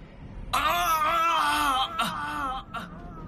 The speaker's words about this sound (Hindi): तभी दिव्या के कानों में विशाल के चिल्लाने की आवाज पड़ी दिलीप विशाल के शरीर में घुसकर उसके ही शरीर को नुकसान पहुंचा रहा है और दर्द विशाल को हो रहा है